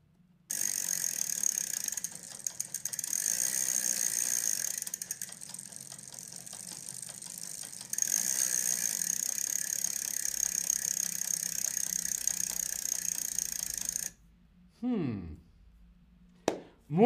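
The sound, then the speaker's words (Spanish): A bicycle's freewheel ratchets in a rapid, steady buzz of clicks for about fourteen seconds, loud, briefly easing midway, then stops and a short falling tone follows. “Lo que estábamos escuchando, lo que has escuchado era el sonido de la bicicleta.”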